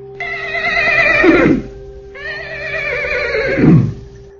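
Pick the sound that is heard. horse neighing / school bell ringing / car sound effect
horse neighing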